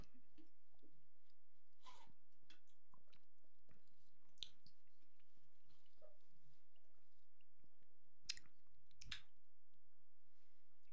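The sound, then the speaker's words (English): Quiet wet mouth sounds of people sipping and tasting a strawberry watermelon Prime Hydration sports drink: scattered slurps, lip smacks and tongue clicks at irregular intervals, with no talking. “we taste test Prime Hydration”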